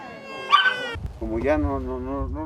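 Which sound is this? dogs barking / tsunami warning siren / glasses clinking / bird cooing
dogs barking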